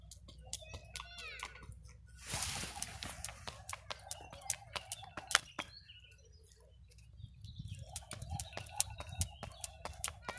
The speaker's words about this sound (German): Schnurspringen im Överseepark.